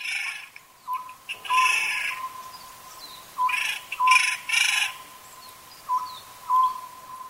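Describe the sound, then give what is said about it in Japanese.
A Japanese scops owl, a small owl that fits in the palm of a hand, calls in short, mid-pitched notes that sound like 'buppōsō', in small repeated groups over a steady hum, with bursts of hissy, rushing noise between them. No one speaks. “この葉ずくは手のひらに乗るほどの小さなフクロウの仲間です”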